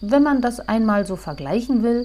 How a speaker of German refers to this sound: Die Grille ist dann der Flötist.